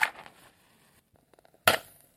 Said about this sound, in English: Whoa! Oh! That was so much louder than I expected. That was good, wasn't it? That was good. Uh, there's a squeaky pop, as you learnt in school. Hydrogen should produce. Hydrogen did produce a squeaky pop.